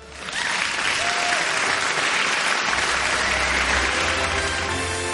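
crowd, applause and ovation

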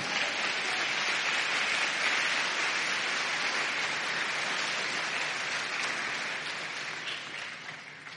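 crowd, audience clapping hands

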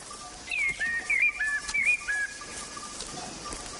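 bird, small bird singing

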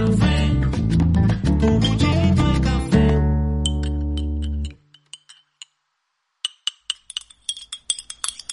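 household object, teaspoon clinking

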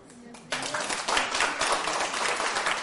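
crowd, audience applause

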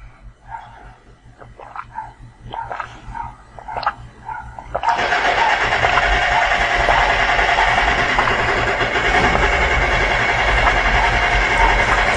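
tool, jackhammer

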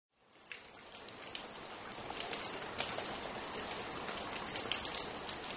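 nature, rain falling

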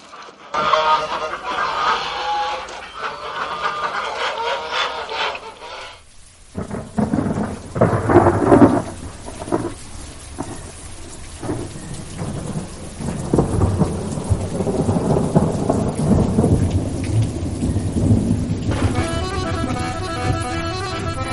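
nature, rain

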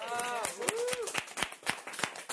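crowd, applause

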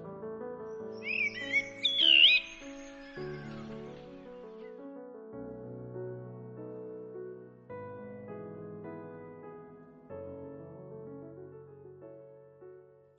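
bird, blackbirds singing

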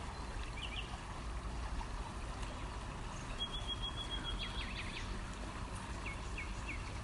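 nature, river water flowing nearby

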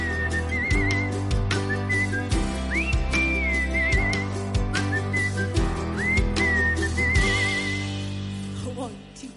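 whistling melody

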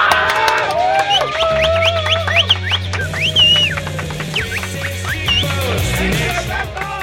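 crowd, applause and cheering

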